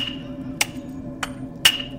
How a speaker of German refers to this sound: du hörst ein, ein viel lauteres, hämmerndes Geräusch plötzlich durch die Räumlichkeiten dröhnen.